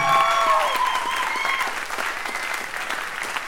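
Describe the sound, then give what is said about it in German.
A burst of applause with dense, crackling clapping from a group, loud at first and gradually thinning, with a few tonal whistle-like streaks at the start. “Großen Applaus, finde ich.”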